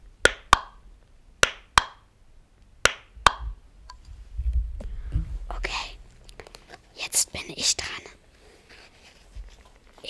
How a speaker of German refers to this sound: so einem Druckknopf, also so eine Packung von Stiften.